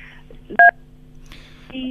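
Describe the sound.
A single short, loud electronic beep comes through a phone line, cutting in sharply over a steady line hum, with faint muffled voice sounds before and after.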